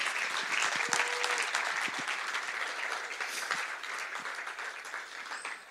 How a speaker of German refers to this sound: Lass uns mal dem Herrn einen Applaus geben für das tolle Jahr.